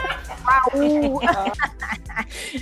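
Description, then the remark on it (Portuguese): A voice imitates a chicken's clucking, a few squawky, wavering clucks in quick succession, with a bit of laughter or chatter mixed in toward the end. “Receba a galinha pulando. Ela tá pulando.”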